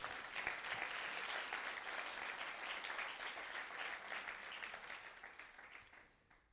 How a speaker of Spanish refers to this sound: Alguien le dice, gracias Señor. Alguien le da un aplauso fuerte a Jesús.